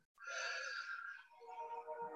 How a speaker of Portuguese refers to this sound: fazendo uma respiração profunda, vamos voltando.